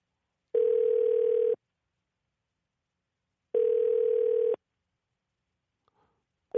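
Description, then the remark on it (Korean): A steady telephone ringback tone of a radio host's outgoing call to a listener sounds in three evenly spaced bursts of about one second each, separated by long silences, clear with no voices. “5655님한테 전화를 한번 걸어보겠습니다”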